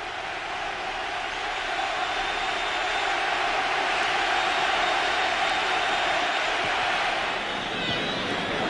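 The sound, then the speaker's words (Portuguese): A large stadium crowd in Seville roars and applauds in an ovation welcoming Sporting at a Betis–Sporting football match, a steady, dense wash of cheering that holds at a constant loud level throughout, with no individual voices standing out. “El Sporting fue recibido entre aplausos, una auténtica ovación.”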